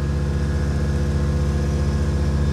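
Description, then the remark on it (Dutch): A steady, loud engine drone of a small propeller airplane climbing just after takeoff from Hilversum airfield, Netherlands, over peat meadow land, climbing to 1000 feet and heading north. It has a deep, throbbing low-end hum and even tonal harmonics, holding constant without pauses. “We zijn nu net opgestoven van uh, vliegveld Hilversum.”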